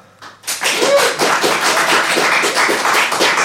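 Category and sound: crowd, audience clapping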